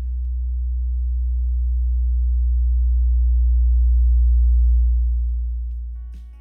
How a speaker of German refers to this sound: Was man für jeden mächtigen Sound braucht, ist ein dezenter sub man nehme den Software-Synthesizer FM8, der den passenden Klang liefert.